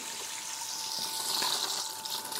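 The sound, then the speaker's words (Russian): Steady hiss of warm water spraying from a portable shower head fed by a pump submerged in a container of water, a continuous rush with a faint pump hum underneath and no talking. “идет водичка.”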